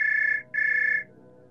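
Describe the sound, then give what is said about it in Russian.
A mobile phone rings with an incoming call in an apartment, the ringtone sounding in two steady electronic bursts with a short gap between them, fairly loud, with a low hum underneath. “Поднес к своей голове, и секунду спустя в моей квартире зазвенел мобильник”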